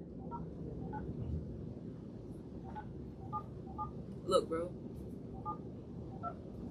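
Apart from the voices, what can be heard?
telephone keypad dialing tones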